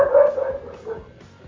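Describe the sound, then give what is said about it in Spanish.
A dog howls in a long, wavering tone that trails off, a single drawn-out cry with no talking over it. “Hasta el perro se emocionó, güey.”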